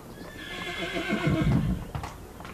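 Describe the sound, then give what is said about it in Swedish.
A horse lets out a long, high whinny that trails off, while heavy hooves thud and clop, growing louder toward the end. “Så fort jag satt till häst var bekymren borta.”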